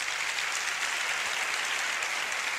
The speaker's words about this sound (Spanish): Eh, os voy a pedir otro aplauso. Esta vez quiero que aplauda eh, la gente que use habitualmente cualquiera de las redes sociales. A ver cómo suena. A ver.